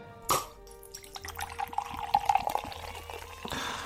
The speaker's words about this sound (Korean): 아, 이 소리까지 정말 시원한 콜라.